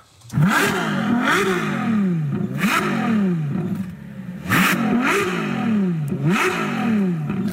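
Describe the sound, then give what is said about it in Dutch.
The hybrid V12 engine of a 2015 Ferrari LaFerrari revs high, rising and falling in repeated sharp bursts. Each rev climbs steeply before dropping back, loud with a raspy, whining edge, and no talking. “Ja, inderdaad, een Laferrari. Eh, La, Ferrari. Ja, uit 2015 klinkt zo”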